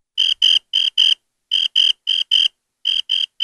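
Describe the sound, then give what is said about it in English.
Crickets chirp in steady bursts of three or four shrill pulses, separated by short pauses, fairly loud against an otherwise silent background. “That's right. Crickets.”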